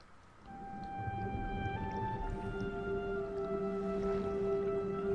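In a video game trailer, a deep underwater ambience swells in, with a low rumble and long, sustained whale-like tones drifting over it, plus faint drips and bubbly squishes; no one speaks.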